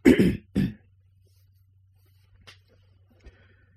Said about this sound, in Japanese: ちょっとあの、咳払いします。